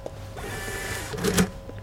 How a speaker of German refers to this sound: Schlecker geht zur Kasse und zieht einen Kassenbon. Anhand der Rechnungsnummer kann er sehen, wie viele Kunden heute eingekauft haben.